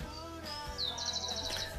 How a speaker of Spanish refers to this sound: mientras tenemos unos pajaritos hermosos de fondo.